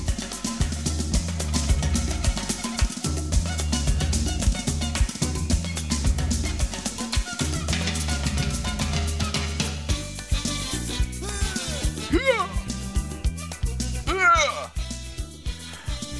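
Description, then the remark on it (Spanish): A loud, upbeat ska rock song by a 1990s band plays throughout, with punchy drums keeping a steady driving beat under dense guitars and horns, and a sung vocal line sliding in near the end. “… que en los 90 la rompían toda, arrancando por mi posa mi novia se cayó en un pozo ciego”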